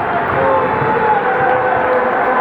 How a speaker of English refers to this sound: As you can hear, the sirens er are on.